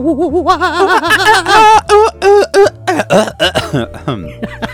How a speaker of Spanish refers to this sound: estoy con tos de perro sí.